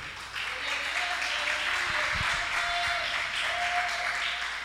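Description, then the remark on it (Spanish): A church audience applauds God in a dense, sustained wash of clapping that holds at an even level for several seconds, with faint tonal voices or cheers rising briefly through it. “Dile un aplauso fuerte al Rey.”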